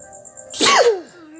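A single sharp sneeze bursts out, a sudden noisy blast followed by a short falling vocal tail, with quiet background before and after.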